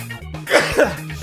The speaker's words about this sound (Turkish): Hapşırdım gerçek demek ki.